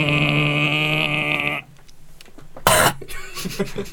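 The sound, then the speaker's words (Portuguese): A person makes an exaggerated hacking, gagging sound, first a long strained bleat-like groan and then a sharp, loud cough burst, imitating a cat coughing up a hairball. “Bola de pelo.”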